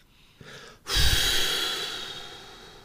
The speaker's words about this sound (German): Das ist das eine das Durchatmen, bevor du loslegst mit so einem Apparatismus von Mindfucking.